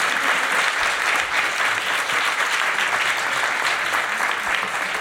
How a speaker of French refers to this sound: Et merci à nouveau à Trilog, je pense qu'on peut les applaudir encore une fois.